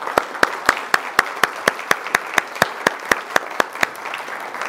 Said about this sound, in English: So, uh, can we give a round of applause for our panelists?